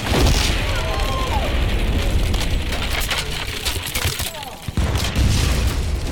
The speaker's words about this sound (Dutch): Maar dan. Het scheurende geluid van hout.